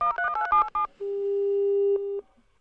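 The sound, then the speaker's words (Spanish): A quick burst of telephone keypad beeps is followed by a single steady electronic line tone as a call is hung up, loud, holding for just over a second before a click cuts it off. “No, así no se, hace el sonido de colgar. El sonido de colgar también está aquí.”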